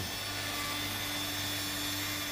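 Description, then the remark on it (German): A power tool works a block of ice in an ice workshop, giving a continuous grinding hiss with a faint whine underneath, even in level throughout, with no voices. “Pfeile und Spachtel, Fräse und Säge sind die Arbeitswerkzeuge von Thomas Dremmel”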